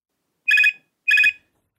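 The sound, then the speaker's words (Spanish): Two short electronic telephone rings, each a bright warbling burst of about a third of a second separated by a brief pause, loud with no one talking. “que llegan tarde, pero por suerte, para algo inventaron hace dos siglos el teléfono.”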